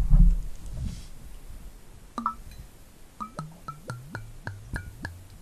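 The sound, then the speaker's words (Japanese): Gin glugs out of a bottle into a glass in a quick run of about eight rhythmic gurgles, each with a ringing, falling tone. A soft rustle comes before the pour, and no one speaks. “ああいい匂いするわこれ注いでみますよ”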